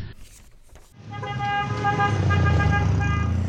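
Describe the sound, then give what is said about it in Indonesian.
Street traffic with many cars rumbles low as a car horn blares in one long, sustained, loud honk lasting a couple of seconds, after a brief quieter stretch of road noise. “aduh jangan lari banyak mobil itu”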